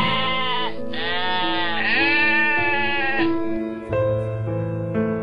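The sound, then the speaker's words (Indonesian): A flock of goats bleats continuously for several seconds, loud, with overlapping wavering calls that rise and fall and no talking. “Peninggalan Abdullah hanya lima ekor unta, sekelompok ternak kambing, dan seorang budak perempuan bernama Umu Aiman.”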